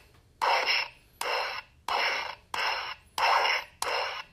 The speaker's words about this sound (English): You just continue pushing the button and it turns into, you know, just a basic cycle of sound effects.